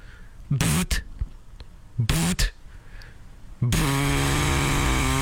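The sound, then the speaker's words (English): A bug zapper crackles as it zaps a moth: two short, sharp electric bursts, then a loud, sustained buzzing sizzle that runs to the end. “Just listen to the mosquito buzzer thing.”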